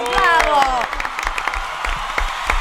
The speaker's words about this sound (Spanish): Oye, pero entonces, este, bienvenidos. Un aplauso para todos.